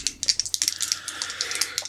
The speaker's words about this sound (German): Okay, während du die aussuchst, würfel ich schon mal weiter, ne?